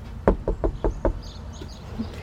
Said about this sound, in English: I like to have a medium knock as if it were every now and then. You know, as if I was knocking on a friend's house. I don't want to make it sound like I'm the cops at the door or anything like that.